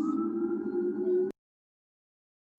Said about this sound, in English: You know, you live in New York when you hear ambulances.